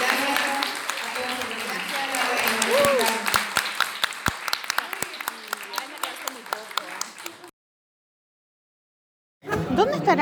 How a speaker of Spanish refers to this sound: Ay, muchas gracias. Un aplauso. Gracias